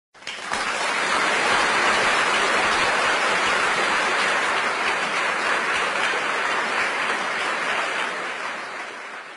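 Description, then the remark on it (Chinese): A group breaks into applause congratulating two students selected for recommended postgraduate admission. It is a dense, steady wash of many hands clapping at once, loud and even throughout, fading slightly near the end with no voices on top. “大家掌声恭喜他们二位。”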